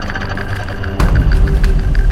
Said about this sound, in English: Let's go into the bathroom here. It's like my bathroom and laundry room. That's my hair dryer.